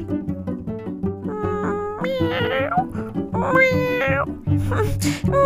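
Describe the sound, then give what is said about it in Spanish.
A cat meows twice in drawn-out, rising-and-falling cries, clear, with a steady tonal background humming underneath and a brief squeaky noise near the end. “Maullaba con un tono rebelde.”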